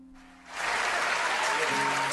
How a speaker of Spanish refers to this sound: aplausos. como en el Chavo del 8, sí, pero que ni parece que son grabados.